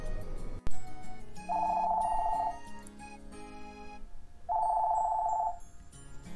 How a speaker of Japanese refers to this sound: おっといけない電話電話